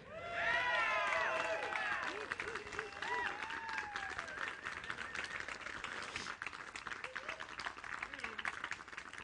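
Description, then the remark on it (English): A crowd applauds steadily to welcome a new church community and care director, dense clapping running the whole way through, with voices whooping and cheering over it at the start before the shouts thin out and the clapping continues. “So folks uh, cheering, she'll be signing autographs here in a little while.”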